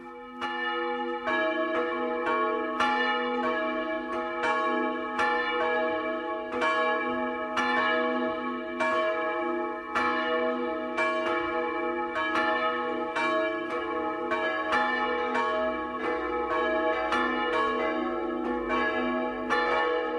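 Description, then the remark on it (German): Several bells of a mountain church in Altbach, Tyrol, peal together in a steady, overlapping rhythm over remote farmsteads and villages in deep snow, calling people to Christmas midnight mass. Each strike rings out with long shimmering overtones, loud and continuous with no voices. “Das Geläute der Bergkirche in Altbach in Tirol geht über Einödhöfe und Dörfer und weist denen den Weg, die durch den tiefen Schnee zur Christmitte kommen.”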